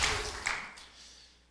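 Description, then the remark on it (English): A church audience clapping together as a clap offering, a dense, fairly soft patter of many hands that quickly thins out and fades away within a second and a half. “In old church days, we would just have called that a clap offering.”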